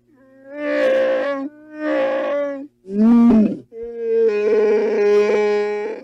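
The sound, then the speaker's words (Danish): The deep, gravelly roar of Chewbacca, made of many animal sounds layered on top of each other, including a walrus, heard as four loud bursts. The final one is long and sustained, and no one speaks. “Øh, den lyd, der er blevet brugt til Chewbacca's øh, mærkelige brøl.”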